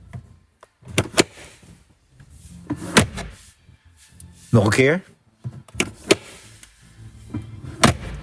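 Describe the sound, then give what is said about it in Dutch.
A car glovebox is snapped open and shut several times up close, each movement a sharp plastic clack, often in quick pairs, with a brief spoken phrase between them. “En ik kreeg meerdere aanvragen voor het Dashboard CQ handschoenenkastje.”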